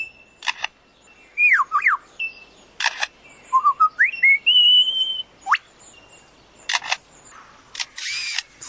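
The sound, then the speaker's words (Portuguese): A bird mimics a camera shutter with sharp mechanical clicks and whirs, mixed with clear whistled swoops and rising notes, all loud with no talking. “Depois que eu terminar de falar, vai aparecer o som dela imitando uma câmera fotográfica fotográfica e não tô pegando som de câmeras fotográficas, é da própria ave mesmo.”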